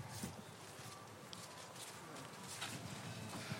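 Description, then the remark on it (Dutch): Footsteps climbing the blasted stairs of a castle, a steady series of hard, clacking steps over a constant background hiss, with no talking. “Kijk, en nu gaan we dus inderdaad de trap op.”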